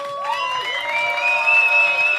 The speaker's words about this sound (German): Und damit ihr da draußen wisst, äh, dass wir hier vor Publikum stehen, könnt ihr einmal bitte alle ganz laut applaudieren. Ja?